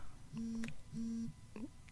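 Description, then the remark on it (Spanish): A cell phone rings with two steady electronic tone bursts of equal length, separated by a short gap, followed by the start of a third, clear. “saber poner un celular en silencio.”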